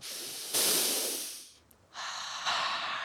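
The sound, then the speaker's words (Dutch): A loud nasal inhale, a long deep sniff drawing in air, followed by a brief pause and a second strong sniffing breath, with no talking; a person breathing in outdoor smells of water, trees and grass in the countryside beside a pond. “Ik adem en ik snuif die prachtige geuren op die ik hier ruik op het land.”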